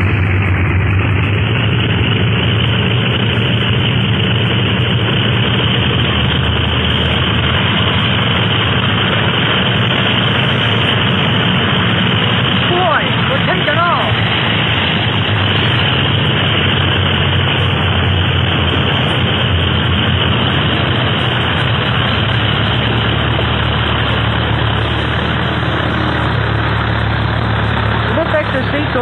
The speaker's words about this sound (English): Clint made a good takeoff. And just in time.